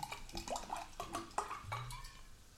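Water pours into a glass with gurgling splashes and a faint clink, the pitch rising as it fills, with no talking.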